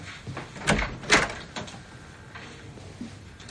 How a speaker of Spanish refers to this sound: La mujer comienza a cerrar la puerta, pero muy lentamente.